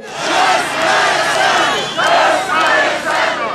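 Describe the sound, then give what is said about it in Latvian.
A large crowd chants loudly at a demonstration against the cost of living in Chișinău, Moldova, where protesters demanded President Sandu's resignation. Many voices rise and fall together in repeated surges, with a brief dip before the next shouted phrase. “Septembrī un oktobrī Moldovas galvaspilsētā Kišiņevā notika vairākas plaši apmeklētas demonstrācijas pret dzīves dārdzību.”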